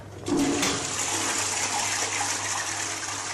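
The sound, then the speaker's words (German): A public toilet in Singapore flushes with a sudden loud rush of water that starts abruptly and keeps gushing steadily, a broad hiss with a low hum beneath it and no one speaking. “Unbedingt abziehen, sonst drohen 150 Euro Strafe.”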